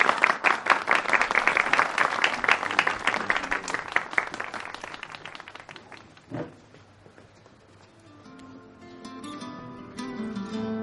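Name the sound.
audience applauding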